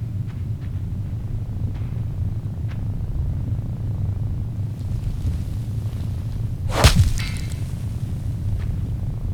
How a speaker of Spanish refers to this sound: Eso que oyen. Es una araña gigante. Que apareció.